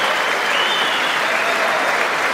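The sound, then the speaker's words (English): Steady applause in a legislative chamber after the statement that the United States is the number one producer of oil and natural gas, a dense wash of many hands clapping without pause at an even, fairly loud level, with no voices standing out. “No, they're going to clap.”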